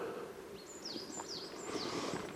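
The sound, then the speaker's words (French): A few thin, high calls from finches, hawfinches and bullfinches flying over, repeating quickly and fairly faint, over a steady outdoor hiss of wind or rustling. “Beaucoup, beaucoup de pinsons, beaucoup de, de gros becs, euh, bouvreuils qui passe en vol.”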